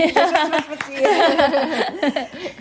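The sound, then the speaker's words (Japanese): Quick, light hand claps patter in a brief run while a voice keeps talking and chuckling over them. “パチパチパチパチ。”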